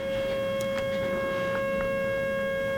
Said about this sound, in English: Lord, we just cover that siren in the blood of Jesus right now. I just I cover the emergency people that are going out, Lord, firemen, policemen, um, medics, whatever's being called out, Father.